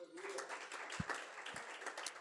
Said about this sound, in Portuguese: Aplauda o Senhor nessa noite.